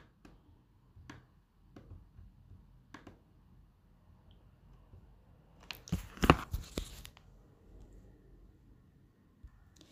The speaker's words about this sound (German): Langsam drehte Nico den Brief um, riss ihn auf und nahm zwei eng beschriebene Blätter heraus.